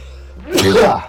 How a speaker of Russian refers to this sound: А, будь здоров.